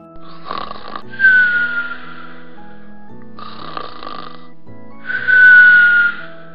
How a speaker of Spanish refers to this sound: Los amigos continuaron con la aventura y al llegar a la cueva escucharon fuertes ronquidos.